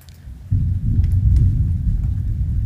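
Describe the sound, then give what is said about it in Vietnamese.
A deep, sustained rumble of thunder rolls in suddenly after a brief quiet moment, heavy and low, continuing steadily with faint rain-like crackle above it. “Mọi người nghe tiếng sấm không?”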